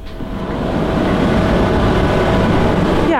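A large industrial dryer in a feather processing and cleaning plant, with feathers spun around inside, runs with a steady, loud mechanical rumble and churning drone, dense low tones and a constant hum, no one speaking over it.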